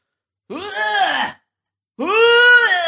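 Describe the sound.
A voice imitates two drawn-out, wavering groans, one after another with a short pause between, like a very sick person in pain behind a door by a hospital ambulance reception; fairly loud with no other sounds.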